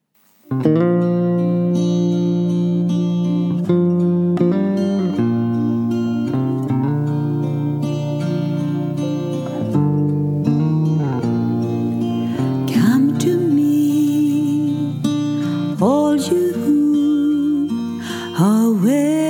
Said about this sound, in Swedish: Vi lyssnar på den här sången.